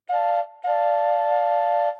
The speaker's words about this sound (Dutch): Ah, er komt een trein op ons af.